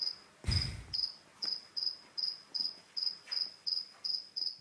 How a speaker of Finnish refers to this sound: joo, joo, tää on sirkka, tää on sirkka.